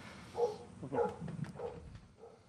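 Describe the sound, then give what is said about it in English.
A dog barks four times in a steady, evenly spaced rhythm, muffled, with no voices alongside. “My dog is going insane. I don't know if you can hear that.”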